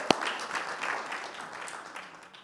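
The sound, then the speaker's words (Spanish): An audience applauds the children and young people who took part that day, a dense crackle of many hands clapping together, opening with one sharp clap and then gradually tapering off over a couple of seconds. “Gracias, un aplauso a los niños, a los jóvenes que participaron hoy.”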